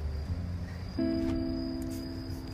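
A bell cricket sings a steady, high, ringing trill throughout, fairly faint, over a low background rumble, with a soft humming tone joining partway through. No one speaks.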